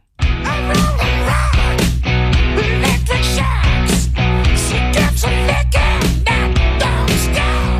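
A loud hard rock guitar riff, from a track produced by a producer, chugs along with a full band, drums punching out a steady beat underneath; no voices are heard.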